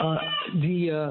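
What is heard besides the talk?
cat meowing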